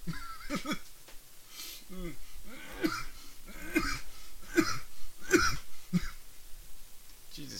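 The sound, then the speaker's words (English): A man coughs and clears his throat over and over, a steady run of harsh, rasping bursts with short gaps between them and no talking. “Let, us get you to go from coughing to crying”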